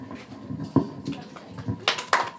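Scattered hand claps that swell into a short burst of applause near the end, bright and fairly loud, with a low murmur of voices underneath.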